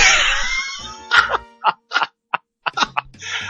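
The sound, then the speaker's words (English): A voice imitates retching and gagging into a Vader mask, starting with a long strained groan and then a series of short, choked heaving bursts, fairly loud. “but that was the sound of me vomiting into my Vader mask.”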